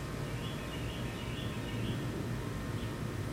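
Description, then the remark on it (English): Faint birdsong over a steady outdoor hiss, with soft intermittent chirps from birds sitting outside among trees, coming and going across the few seconds and no one talking. “I hope y'all can hear the birds chirping in the background.”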